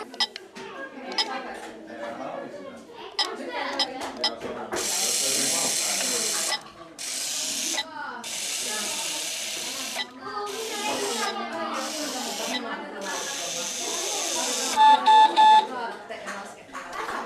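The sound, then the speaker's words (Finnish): A Bee-Bot educational floor robot, steered with arrow buttons, whirs along in several buzzing motor bursts separated by short pauses, then gives a few quick high beeps, while people keep talking underneath. “Semmoinen oli siis Bebot.”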